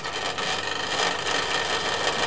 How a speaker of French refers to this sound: Il y a le super radiateur là pour l'hiver, il fait un bruit de ouf. D'ailleurs, je sais même pas, il n'est pas allumé. On va peut-être à l'allumer parce que sinon il euh, va faire un petit peu froid, tu vas voir. Ah, voilà.